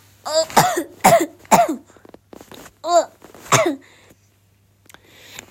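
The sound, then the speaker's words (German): A run of harsh coughs: five or six loud bursts in quick succession, with short gaps and some rough breathy sounds between them, then a faint rustle near the end. “Oh Mann, ich hab echt Husten.”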